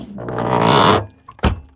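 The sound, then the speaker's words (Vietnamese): A window slides shut with a rising scrape that ends in a short pause, then one solid thunk as it closes, with no voices. “Này này, bà đóng cái cửa sổ lại tôi cái”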